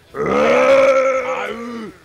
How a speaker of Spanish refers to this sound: Un grito femenino emocionado.